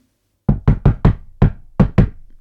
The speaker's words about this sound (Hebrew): דפיקות בדלת. שמי פתח, אוי לא. בדלת עמד שוטר.